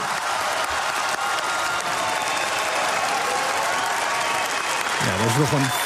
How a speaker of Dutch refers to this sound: veel groter applaus dan eh, wij net hier bij in het hoofdkantoor eh, hebben. Eh, maar toch, euforie. Huilende mensen, heel veel gejuich.